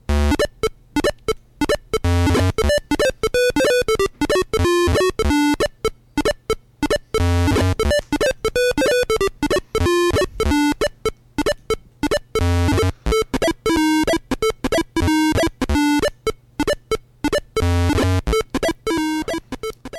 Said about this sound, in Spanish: Lo quito, lo quito ya, porque esto ya empieza a sonar demasiado. Demasiado speaker de ordenador de los años 80, ¿eh? Sí, señor, ese es el sonido inconfundible del speaker, ¿no? Cuando no tenías tarjeta de sonido sonaba eso.